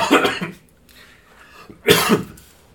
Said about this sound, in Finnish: talviköhä, tai tuommoinen, kun ei ole kunnon talvi, vaan tällainen sadetalvi, niin vähän köhä